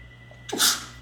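A single sharp sneeze bursts out, a quick intake followed by a loud, bright expulsion, with a faint steady hum in the background.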